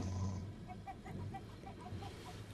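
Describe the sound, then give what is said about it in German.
Two caged chickens cluck in a quick, steady series of short notes aboard a moving train, over the constant low rumble of the train carriage. “Unter mir geben sich eine Babuschka, zwei Hühner im Käfig, ein Enkel und eine Enkelin, sabbernd, schnarchend und gackernd auf eineinhalb Quadratmeter Zug lege den süßesten Träumen hin.”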